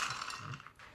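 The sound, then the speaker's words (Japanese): A dog eating its food: quick, irregular crunching and clicking bites with a faint rattle, steady and fairly loud, with no voices. “あのワンちゃんのご飯食べてる音ね”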